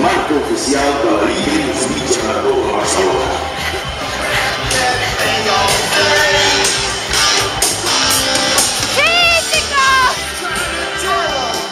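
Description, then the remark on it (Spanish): A dense crowd shouts and cheers encouragement without pause, many voices overlapping loudly, with a few sharp whistles rising through the noise near the end. “Ese grito de un compañero en medio de un entreno para animarte a que te exprimas y lo des todo, y el grito de tus padres cargado de emoción y cariño.”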